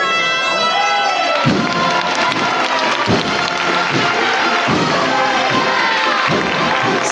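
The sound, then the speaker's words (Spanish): A crowd gathered for a procession breaks into sustained applause with cheers as the procession breaks forward, while steady low thuds land every second or so beneath the clapping and a bright ringing tone drifts through. “despiertan los aplausos de los aquí congregados tras romper de frente.”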